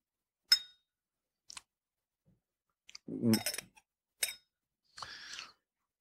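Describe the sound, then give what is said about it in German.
A small glass lid is clinked against a whisky nosing glass several times, bright taps with a brief ring, separated by pauses, plus a short rattling scrape midway. “Das ist ein äh, Whiskyglas. Ah. Ein Nosingglas mit einem kleinen Deckelchen.”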